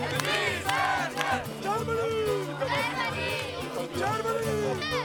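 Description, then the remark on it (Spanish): Refugees trapped between Greece and Macedonia after the closing of the Balkan route shout in protest, many voices overlapping in loud, strained cries that rise and fall in waves over a constant murmur of babble and movement. “Allí se acumulan historias, vidas y sueños rotos, también gritos de protesta.”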